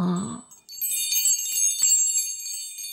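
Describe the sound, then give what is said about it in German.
A small bell rung by the donkey Asi rings with a bright, shimmering tinkle, sustained high tones jingling steadily for a couple of seconds after a brief low sound at the start, fairly clear. “Haha, Asi wollte heute klingeln.”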